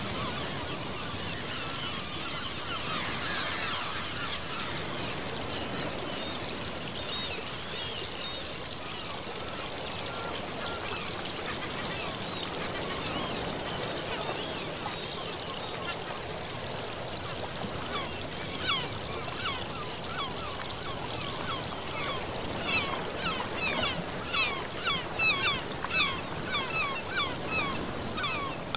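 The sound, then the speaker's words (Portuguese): A flock of seagulls calls over the Ionian Sea, with scattered cries growing busier and more overlapping toward the end above a steady rushing wash of water. No one speaks. “horizonte, vemos as águas míticas do Mar Jônico e sobre elas um bando de gaivotas.”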